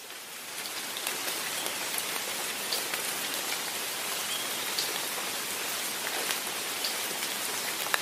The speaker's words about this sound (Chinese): 刚才也听到了…的身边，刚才也就是在下雨